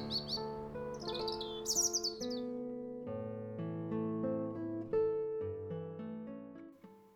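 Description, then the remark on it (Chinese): High, quick chirping trills like birdsong flutter over sustained orchestral string chords for the first two seconds in Vivaldi's spring music, depicting birds singing again after a storm, then the strings carry on alone with a bright, rising melody. “Then they die away to silence, and the birds take up their magical songs once more.”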